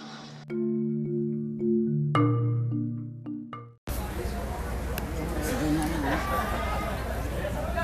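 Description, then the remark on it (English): A few sustained instrument notes ring out, then cut abruptly to a steady murmur of crowd chatter, many voices talking at once at a constant moderate level, in the VIP tent at a chili cook-off. “We're here at the chili cook-off. We're in the VIP tent, and these fellas are going to play some music.”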